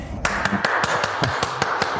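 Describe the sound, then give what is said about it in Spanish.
Someone claps their hands in a quick, steady run of about ten sharp claps, evenly spaced, with no talking over them. “Me aplaudo porque digo la verdad.”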